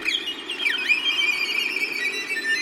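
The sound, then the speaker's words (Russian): A violin imitates birdsong with high, whistling notes, a quick swooping slide down and back up, and shimmering trills, sustained and fairly loud with no one talking. “Голосам птиц скрипка запросто подражать может.”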